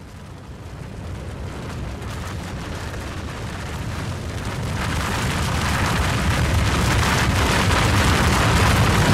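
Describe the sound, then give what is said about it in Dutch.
A continuous, heavy roar of an avalanche thunders down a mountain, a deep rumbling wash of noise that swells louder partway through and stays dense and overwhelming until the end. “Dit is het geluid van een lawine.”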